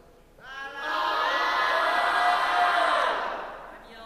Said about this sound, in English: …, all right, just start yelling.